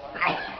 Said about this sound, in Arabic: يرحمك الله